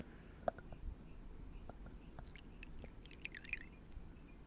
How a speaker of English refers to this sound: if you can pour yours next to the microphone. I want to see if we can get the ASMR on there